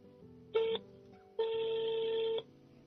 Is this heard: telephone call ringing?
yes